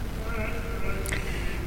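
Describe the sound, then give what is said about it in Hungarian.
A Westminster choir sings a slow, sustained Advent Rorate chant melody, one of the best-known Rorate melodies, voices blending in long held tones at a steady, moderate volume with no speech over it. “Ez a szöveg, amit most felolvastam nektek, egy adventi ének, egy roráte szöveg amit hallotok, ez a Westminsteri kórusnak az e, előadásában ez a dallam, az egyik legismertebb Roráte dallam.”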